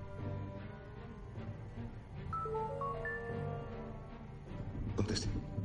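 A mobile phone ringtone plays at 3:40 in the morning: a short run of clear, stepped electronic notes at middling pitch, rising and falling, over a dense, steady background murmur.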